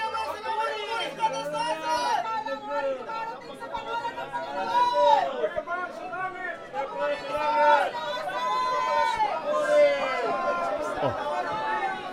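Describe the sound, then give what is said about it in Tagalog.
A huge crowd of thousands cheers and shouts in Jerusalem, calling out Jesus's name and hailing him as son of David, many voices overlapping in a continuous, fairly loud roar that swells and holds steady throughout, with individual calls rising above the din. “Anong ingay yun? Ingay ng libu-libong tao.”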